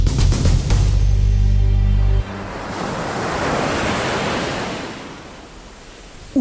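Sea waves break and wash onto the shore in a broad, hissing surge that swells and slowly recedes, with a low rumbling boom at the start and no voices.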